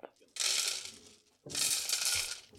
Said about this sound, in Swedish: Jag ska lägga ner alla mina tärningar så jag får plats på skrivbordet.